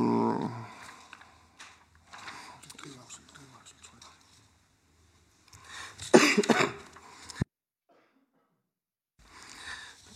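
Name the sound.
man coughing repeatedly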